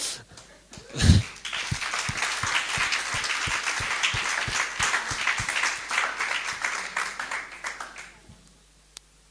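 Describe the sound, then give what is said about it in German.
A crowd breaks into sustained applause for Jesus and themselves, dense overlapping claps lasting several seconds with a low thud near the start, then the clapping thins out and fades to a lone final clap. “Jetzt dürft ihr einfach mal Jesus und euch nochmal einen Applaus geben.”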